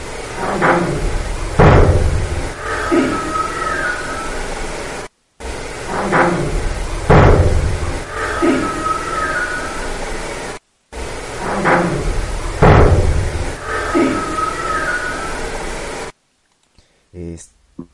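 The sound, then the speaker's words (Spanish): A sharp door slam sounds three times as the same noisy, hiss-filled psychophony recording is replayed, each bang standing out loudly above a steady static background with faint, indistinct voice-like murmurs, said to say "hay alguien". “está muy claro ese hay alguien y el portazo, pero después del portazo que se escucha hay un grito.”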